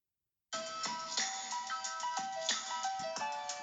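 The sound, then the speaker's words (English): A song snippet kicks in abruptly after a brief silence, loud, with bright, ringing synth-like melody lines over steady, punchy beats and no one talking over it. “so I'm just gonna play a little snippet of the song.”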